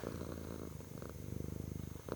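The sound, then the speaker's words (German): A cat sitting on a person's lap purrs steadily and loudly, a soft, rumbling rhythm of pulsing breaths that continues without pause, with no voices present. “der sitzt gerade auf meinem Schoß und schnurrt ganz laut”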